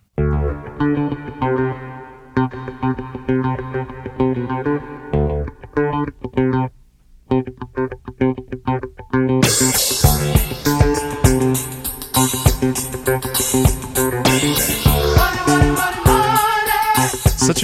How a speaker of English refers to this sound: I love that phase flange effect on those drums, on the cymbals. It gives it that cool kind of moving feeling. A very classic sound.